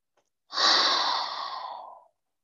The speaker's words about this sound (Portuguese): Inspire profundamente. Solte completamente. Quem sabe ao respirar você faça um barulho, emita um som de alívio.